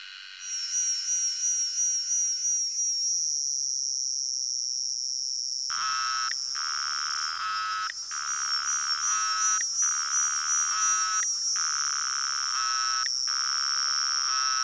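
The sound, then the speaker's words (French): A shrill, continuous cicada buzz with a high warbling tone, joined midway by a rhythmic pulsing chorus of repeated bursts, loud, with no voices. “j'ai une quinzaine d'enregistrements de cigales que je ne sais pas à quoi ça correspond.”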